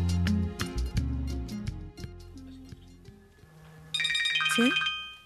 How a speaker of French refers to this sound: C'est à ce moment-là que le téléphone de Berry sonne.